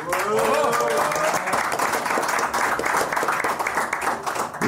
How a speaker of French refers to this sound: Et bonjour, donc, le Hard Rock Café. Merci à vous d'être avec nous. Vous pouvez vous réapplaudir encore une fois, s'il vous plaît.